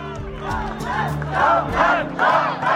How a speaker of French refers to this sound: Dernier exemple en date, le chaleureux accueil que lui ont réservé ses sympathisants ce week-end au Salon de l'Agriculture. Le président du Rassemblement national, sous les acclamations